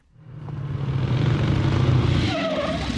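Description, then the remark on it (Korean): A motorcycle roars in loud at a quiet crossroads in Bavaria, its engine building before the tires screech sharply as it skids to a sudden stop, with a brief squeal near the end. “아이, 아이 깜짝이야. 아, 누가 오토바이를.”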